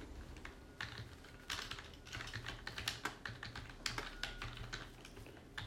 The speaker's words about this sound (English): I didn't know that before I sat down here, started typing.